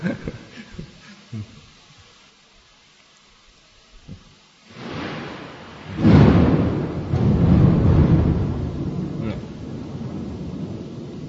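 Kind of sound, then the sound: nature, thunder clap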